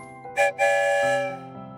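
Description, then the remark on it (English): A train whistle blows twice, a short toot then a longer sustained blast, bright and loud, with the rumble of a train departing the station underneath and no voices. “the story train is about to leave the station”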